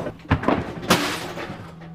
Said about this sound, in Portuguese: Chovia, Chovia muito, chovia demais, mas chovia muito mesmo. Era chuva que não acabava mais, rapaz. E começou a relampejar. Trovões!